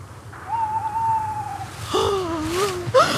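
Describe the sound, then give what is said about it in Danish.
An owl hoots in the dark in a small wood near midnight: one long, steady note, then a wavering, quavering call that trails upward, clear over a faint low background hum. “I sekundet, vi træder ind på stien i den lille skov, hører vi en lyd. En ule af vågen.”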